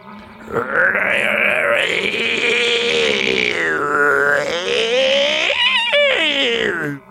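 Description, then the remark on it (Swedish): A voice imitates a loud hungry stomach rumble from the belly of Köttnos, a story character: a long, continuous groaning growl lasting about six seconds, wavering up and down in pitch with gurgly warbles near the end. “Och innan de båda kompisarna hade hunnit tänka en endaste tanke så blev de öronbedövade av ett kraftigt ljud från Köttnos mage.”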